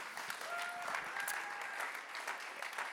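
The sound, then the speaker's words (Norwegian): An audience applauds the statement that the future of the Church is not digital. The steady, dense, even patter of many hands clapping lasts a few seconds, with a couple of faint whistles threaded through the noise. “Ja, Gi en applaus for det.”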